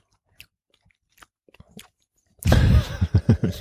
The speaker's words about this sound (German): schlürf, schlürf.